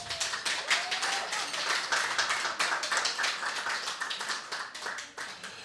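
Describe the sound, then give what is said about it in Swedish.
A burst of applause from a small group for Tomas Tranströmer being awarded the Nobel Prize in Literature, many hands clapping in quick, uneven bursts throughout, steady in loudness with no talking over it. “En svensk Nobelpristagare, det är väl värt att applådera?”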